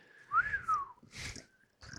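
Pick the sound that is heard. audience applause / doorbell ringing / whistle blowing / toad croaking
whistle blowing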